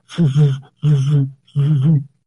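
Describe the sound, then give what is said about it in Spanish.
A voice imitates a machine running, making three drawn-out droning hums with brief pauses between them, close and fairly loud. “oh no, ya cremaron a la víctima, no te preocupes, conozco un lugar, lo llevan como un acelerador de drones y ahí sí, el sonido de la máquina, ¿no?”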